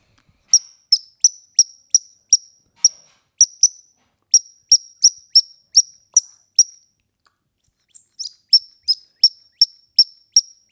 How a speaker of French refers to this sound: Et la troisième, c'était la grive musicienne.